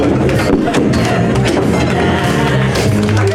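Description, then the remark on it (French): An audience applauds performers loudly and steadily throughout at their first show, a dense wash of clapping with scattered voices and cheers mixed in, continuous for the whole stretch. “on va continuer à les applaudir.”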